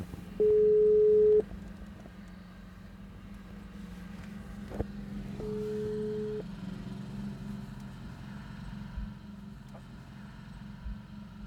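Two long, steady beeps of an outgoing phone call's ringback tone, spaced about four seconds apart, ringing clearly over a low, constant rumbling hum.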